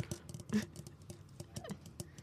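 Quick, irregular tapping on a hard object, a dozen or so light taps in a loose pattering rhythm with one slightly louder knock near the start, no voices.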